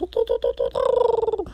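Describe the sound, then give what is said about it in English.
A person imitates a winter wren's song with a quick run of five short chirped notes, then a sustained, rapidly fluttering trill that falls away at the end. Fairly loud. “that sound you're hearing actually is the winter wren and sometimes in April you hear them like really late at night going”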